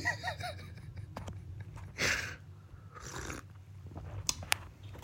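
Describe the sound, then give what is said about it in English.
Two airy slurps a second apart as someone sips hot tea, followed by a few small mouth clicks and a quiet exhale, with no talking. “Let me take another sip of my goddamn tea.”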